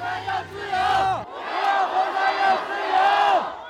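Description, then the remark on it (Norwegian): A large protest crowd marches through the streets of Beijing, China, chanting and shouting together in loud, rising bursts, many voices overlapping in a rhythmic, insistent cadence across the whole stretch. “Vår Asia-korrespondent Philip Lote fulgte den største av disse protestene gjennom Beijings gater.”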